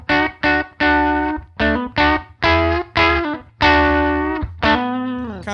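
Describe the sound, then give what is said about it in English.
An electric guitar played through a Tube Screamer overdrive, strumming a rhythmic series of chords with light, mid-heavy gain, ending on a sustained chord that rings out with a slight bend. “And that's kind of like where I think most people use a tube screamer.”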